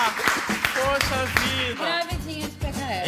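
Scattered hand claps, a handful of sharp, irregular smacks, mixed with lively voices calling out and cheering over them throughout.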